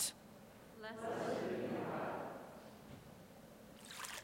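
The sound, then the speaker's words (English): Water is poured into a baptismal font during a church prayer over the water, a soft, steady stream lasting a second or two, faint, with a brief murmur of voice just before it. “Through this water, remind us of our baptism.”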